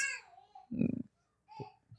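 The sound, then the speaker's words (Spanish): A baby alone in a crib babbles and shouts, not crying, in a few short, loud vocal bursts: a high squeal, a stronger throaty yell, then smaller calls with pauses between. “Pero no, no está llorando, le está hablando allí solo en su cuñita.”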